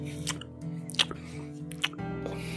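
Wet, clicky chewing sounds, a few sharp squelches standing out at irregular moments over a steady, low droning background.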